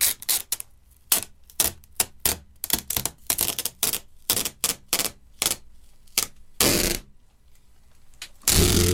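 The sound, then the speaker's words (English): Sellotape being pulled off a reel: a run of sharp, crackly tearing bursts in an uneven rhythm, then two longer, louder rips near the end. No one speaks. “Yeah, it's pulling sticky tape, sellotape, off the reel.”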